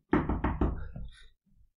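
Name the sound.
knocking on a door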